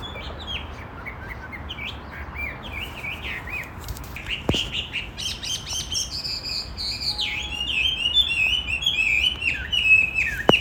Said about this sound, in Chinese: 啊，你在看什么？我我说我在看，我在看一只画眉，是一只画眉在唱歌。